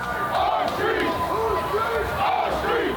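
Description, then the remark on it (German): A large crowd of armed Black Lives Matter demonstrators at a protest in Michigan chants the battle cry "Whose Streets, Our Streets" in unison, loud and sustained, with repeated rising and falling vocal phrases carried by many voices. “Das ist der Schlachtruf, der auf den Demonstrationen dort immer wieder gerufen wird, und zwar von beiden Seiten.”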